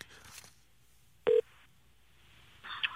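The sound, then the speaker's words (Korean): A single short, loud keypad tone from a telephone being dialed by a radio show host calling a listener, a brief electronic beep standing out against low, hissy background noise, with no talking. “자, 3380님, 전화 한번 걸어보겠습니다.”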